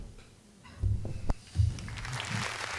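An audience breaks into applause: scattered claps at first with a few dull low thumps, then a denser, brighter patter of clapping that swells toward the end.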